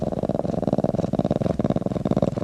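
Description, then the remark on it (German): A lynx kitten purrs, a steady, rumbling stream of rapid pulses with rhythmic swells as it breathes in and out, heard alone without any talking. “Das ist ein Luchsbaby.”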